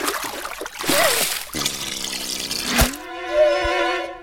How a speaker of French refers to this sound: Oh non Il est tombé dans l'eau